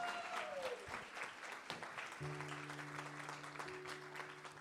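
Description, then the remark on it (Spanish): An audience breaks into sustained applause for the Lord, dense clapping from many hands filling the room, with a steady sustained organ or keyboard tone entering partway through beneath it. “Alguien que conozca esa agua, que le dé un aplauso al Señor.”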